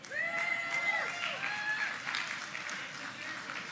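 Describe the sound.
Steady rain patters down in a dense, continuous hiss that holds at an even level throughout, with a few faint high whistling tones and murmured voices underneath.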